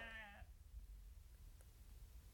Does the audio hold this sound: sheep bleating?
yes